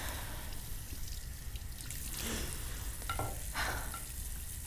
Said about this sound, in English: is washing dishes